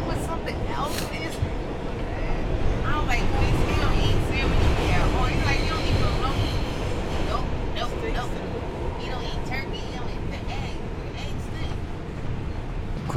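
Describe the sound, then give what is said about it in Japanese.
Steady, loud rumble inside a moving New York City subway car at Christmastime, with continuous rattling and roar and indistinct voices of passengers murmuring throughout. “電車の中は疲れ切って寝ている人もちらほらいますしボロボロの服を着た親子子供が席で眠ってしまっていますがそんな人もいます”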